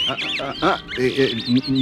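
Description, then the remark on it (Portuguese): A burst of loud squawking bird calls, nasal and quack-like, repeating several times in quick, uneven succession from a flock of birds taking flight with a beating of wings. “Mas nesse momento, um bando de pássaros, num bater de asas, começou a voar gritando: Ninguém está feliz!”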